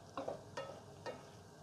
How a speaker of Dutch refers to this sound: doe ik er een klein scheutje water bij. Zodat hij nog meer gaat stoven. Dus zijn ongeveer, wat het zijn, 2, 3 eetlepels of zo. Gewoon even uit de waterkoker. scheutje water erbij.